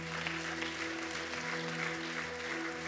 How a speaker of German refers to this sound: Lass uns jedes mal einen großen Applaus geben.